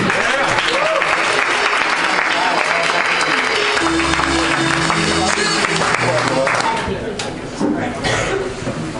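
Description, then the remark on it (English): A comedy club audience at Rooster T Feathers breaks into loud, sustained applause and cheering for a comedian, dense clapping with a few whoops rising over it before it starts to taper off near the end. “So please make it loud”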